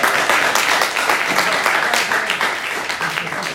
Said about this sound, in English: I'll pay you for that, and I'm going to clap myself.